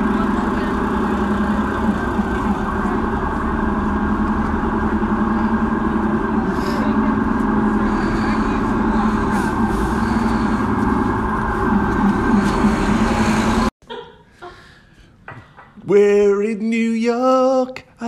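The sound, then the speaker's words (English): Airport terminal ambience at Terminal 2 in Manchester: a dense, steady roar of machinery hum and activity runs for about thirteen seconds, then cuts abruptly, followed by a voice speaking. “Bit of ambient airport sound effects. Terminal 2 in Manchester.”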